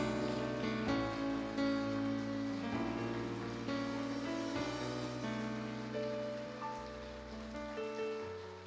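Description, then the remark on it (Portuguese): A church audience applauds Jesus with steady, dense clapping that holds for the whole stretch, layered over sustained organ-like chords and slowly fading slightly toward the end. “Você pode aplaudir Jesus mais uma vez.”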